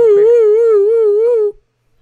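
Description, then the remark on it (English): A loud siren sound effect, played as a spoiler alert, sounds alone: a single steady wail with a slight warbling wobble, lasting about a second and a half before cutting off abruptly into silence. “Uh, could I get that siren noise again for you guys?”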